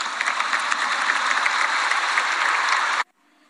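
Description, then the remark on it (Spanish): An audience at an event with the president and the governors of Veracruz and Puebla applauds steadily, a dense wash of many hands clapping at even loudness for about three seconds before cutting off abruptly into near silence. “Un aplauso para ellos.”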